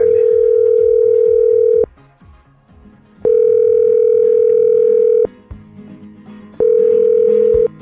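A telephone dial tone heard while calling a number in Murcia, Spain: three long, steady, mid-pitched tones, each lasting about two seconds, separated by pauses of low background noise. Nobody speaks.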